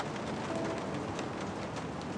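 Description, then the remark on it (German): A steady, dense hiss of rain falling outside at night, heard as a window is opened, with a soft patter throughout, even in loudness and without pauses; no one speaks. “Oh, es regnet.”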